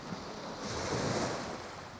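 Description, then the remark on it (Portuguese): Ocean waves wash against the shore in a steady roar, swelling into a fuller crash midway through before easing back. There is a faint windy hiss and no voices. “Mas voltemos ao mar.”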